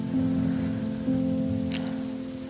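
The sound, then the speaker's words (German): Steady rain patters down across a surface shortly before midnight with a continuous hiss, a few sharper drips standing out, over a low constant hum. No one speaks. “Aber weil es geregnet hat, haben wir uns doch direkt auf den Heimweg gemacht.”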